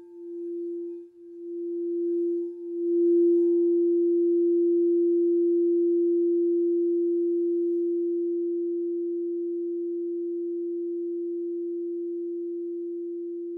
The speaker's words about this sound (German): Die Meditation beginnt und endet mit dem Klang einer Kristallklangschale, die auf das Herzchakra gestimmt ist.